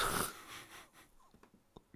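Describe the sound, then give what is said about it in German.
A man gives a single loud, snorting snore, a harsh burst that quickly fades into faint breathy noise and a few small clicks, with no talking. “Es ist lustig, dass wenn, wenn ihn was nicht interessiert, ne, dann schnarcht er immer.”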